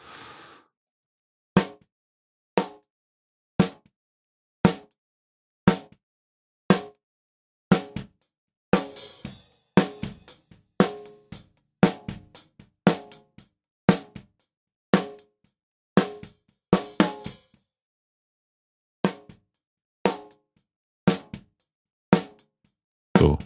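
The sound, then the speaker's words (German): Punchy, heavily compressed snare drum hits, sharp and loud, landing roughly once a second, with a quicker, busier run in the middle and a short pause before the last few strikes. “Ich komprimiere jetzt mal ganz stark die Snare, damit die so richtig knallt.”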